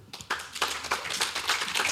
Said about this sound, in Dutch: Mag ik een applaus voor Pravoel?